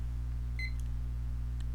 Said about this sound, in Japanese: タイマーのスイッチを入れます